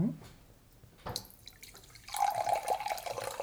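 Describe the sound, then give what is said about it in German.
A few soft drips and clinks, then cola pours steadily into a glass to dilute someone's drink, a fizzy, rising hiss that continues to the end with no talking. “Ich verdünne dir mal ein bisschen mit Cola.”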